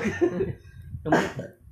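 Two harsh coughs from one person, a short burst at the start and a louder, broader one about a second later, with no talking around them.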